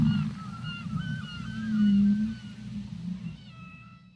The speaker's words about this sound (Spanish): Se escucha el sonido del mar se escucha también a las aves y también se escuchan ballenas